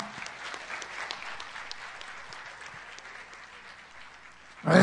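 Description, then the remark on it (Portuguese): Sustained audience applause, a dense wash of many hands clapping at a steady level, swelling abruptly louder in the final half second. “Pode aplaudir bem forte.”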